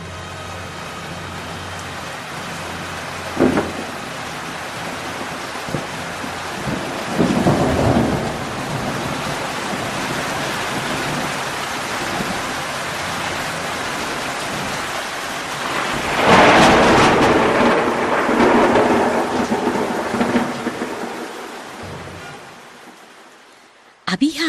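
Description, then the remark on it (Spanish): A thunderstorm finally breaking out on a cloudy day, with steady rain hissing throughout, broken by deep rolling rumbles of thunder that swell loudly around the middle before fading, then a sharp crack right at the end. “amanecido nublado y por fin estalló la tormenta.”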